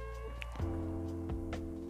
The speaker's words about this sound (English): he want snacking and then meow meow meow meow and I give him snacking so he eat the snacking he so love the snacking